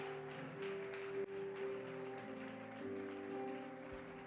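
loud applause

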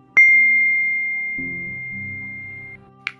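text message notification ding

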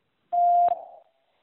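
answer prompt tone beep

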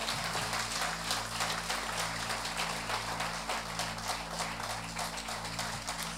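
audience applause

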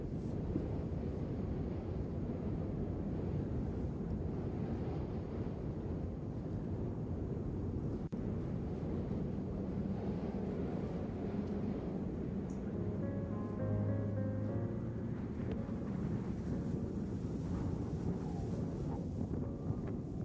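strong wind blowing

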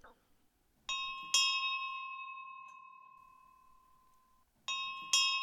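doorbell ringing

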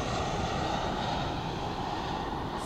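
large airplane flying overhead

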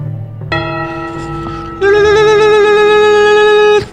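bell ringing

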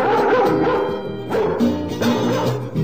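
dog barking

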